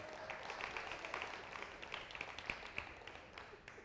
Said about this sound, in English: Let's give our kiddos a hand clap as they exit out. Let's give them a hand.